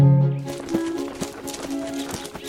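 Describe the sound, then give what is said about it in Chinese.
A busy patter of running footfalls and thumps as a little white rabbit and more and more animals run through a forest, with steady tonal music sustained underneath throughout. “越来越多的动物跟了上来，浩浩荡荡，热闹极了。”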